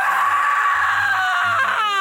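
A single loud, piercing scream held steadily for about two seconds, shrill and close, its pitch sagging slightly as it breaks off at the end. No talking accompanies it.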